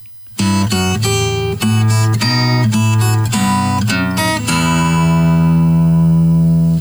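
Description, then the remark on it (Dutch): Solo acoustic guitar plays a melody and a bassline together at the same time, in a steady plucked rhythm, clear, closing on a ringing sustained chord. No one speaks. “Hij laat even op zijn gitaar horen hoe het in elkaar gezet wordt.”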